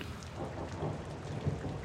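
Steady, hissing rain pours down while deep, low thunder rumbles underneath, swelling briefly near the end. No voices, just the continuous wash of the storm.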